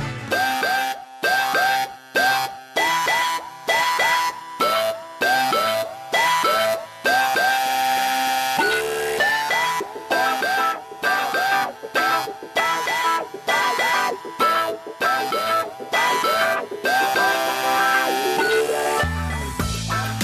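A song plays loud on a radio show, with dense layered instruments and a steady, punchy rhythm of repeated beats throughout. No one talks over it.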